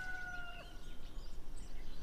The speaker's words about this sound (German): Und du hörst hier die Vögel aus dem Dschungel